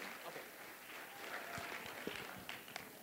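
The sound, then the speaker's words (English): An audience applauds steadily as praise to the Lord during a morning service, a dense wash of many hands clapping at once with a few sharper individual claps standing out, sustained at an even level throughout. “Can we give the Lord a hand cup of praise this morning?”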